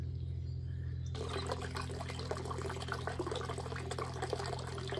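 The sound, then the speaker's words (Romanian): After a quiet second, a steady rush of water starts suddenly, splashing and pouring continuously into one of the ornamental fish basins fed by the aqueduct near Stavronikita Monastery, built by Voivode Șerban Cantacuzino. Loud, with a low constant hum beneath it. “Apeductul are în apropiere de mănăstire câteva bazine cu apă care astăzi adăposesc niște frumoși pești ornamentali.”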